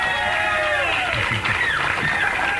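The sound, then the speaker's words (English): A dense, sustained roar of crowd noise with cheering and clapping, many overlapping voices forming a loud, steady wash throughout, with higher shouts and whoops rising above it. “The crowd is getting unruly over here, Mike.”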